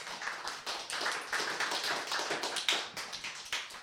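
Applause for a guest on a radio show: a steady, dense patter of many hands clapping at once, moderately loud and even throughout, with no voices on top.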